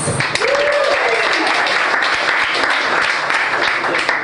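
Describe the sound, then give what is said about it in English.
A comedy festival audience in New York applauds itself steadily, a dense, even wash of clapping that holds at a loud level throughout, with a brief whoop or cheer rising over it near the start. “Give it up for yourselves.”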